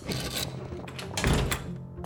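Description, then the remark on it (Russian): A door to a back utility room is pushed shut with a dull thump, followed by a few short mechanical clacks like a lock being turned, with no talking over it. “Спросил Тафуш, запирая дверь в подсобку.”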